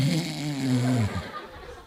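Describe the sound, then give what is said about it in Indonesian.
A person imitates their own very loud snoring: one long guttural, rumbling inhale with low rattling tones lasting about a second before trailing off into quiet. “Udah gitu permasalahan yang lain adalah ngorok. Ada yang ngorok juga nggak di sini? Dan ngorok saya itu gede banget.”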